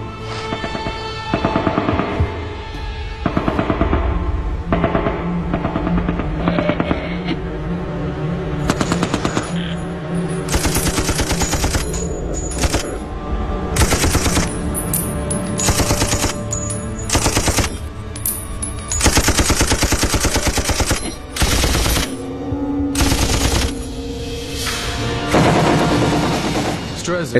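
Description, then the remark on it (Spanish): Sustained, heavy gunfire fired into a trench: rapid bursts of loud, sharp cracks pile into dense volleys with brief pauses, punctuated by deeper booming shots, continuing without letup for nearly half a minute. “Tresik se puso a disparar en el foso.”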